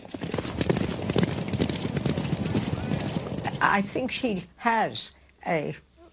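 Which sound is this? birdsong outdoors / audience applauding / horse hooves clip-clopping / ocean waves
horse hooves clip-clopping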